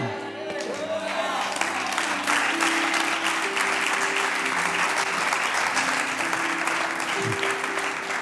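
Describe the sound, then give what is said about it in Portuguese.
An audience breaks into loud, sustained applause, dense clapping that fills all eight seconds at a steady level, with held low musical tones sounding faintly underneath. “Bem, já que você vai ter palmas, é porque está acordado.”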